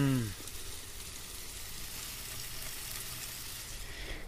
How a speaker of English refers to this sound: And also listen to this sound barbecuing some ribs.